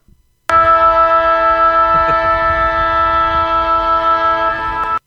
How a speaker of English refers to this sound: But we do have some breaking news. Can you, I know you love it when I bring bring in breaking mm. news. Uh, North Melbourne. We need a siren. We need uh, some sort of siren. I've got I've got the siren.